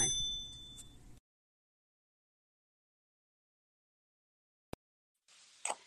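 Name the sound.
notification bell ding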